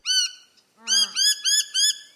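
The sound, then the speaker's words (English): Harsh, squawky calls from a noisy miner: one short call, a pause, then a rapid string of four loud, evenly spaced chattering notes, with no talking. “These days, the birds that are thriving in Sydney tend to be the bigger, squawkier birds, the ones that feed off of flowering plants in the gardens, trash in the bins, or the bird feeders people set out for them birds like the noisy miner”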